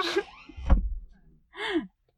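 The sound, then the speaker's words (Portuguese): A closet door shuts with a single solid thump, framed by breathy vocal sounds like a gasp and a short laugh just before and after. “eu fechei a porta do armário, eu voltei pra dentro do armário.”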